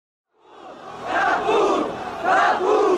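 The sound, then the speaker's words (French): A large crowd shouts together at the Place de la Bastille on 14 July 1789, the taking of the Bastille. The roar swells in from silence and holds loud, with surging waves of raised voices and cries layered over one another. “une place de la Bastille, noire de monde, en ce 14 juillet 1789.”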